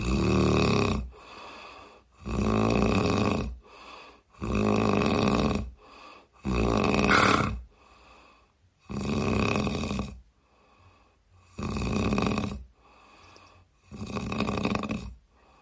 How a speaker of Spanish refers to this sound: pues vemos cómo empiezan los ronquidos